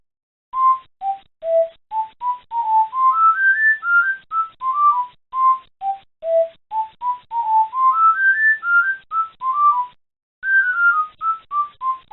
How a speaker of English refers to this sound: There was even the idea to have him whistle the World 1-1 theme from Super Mario Bros. as content was loading.